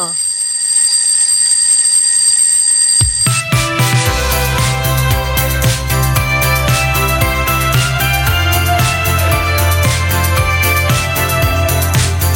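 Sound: alarm clock ringing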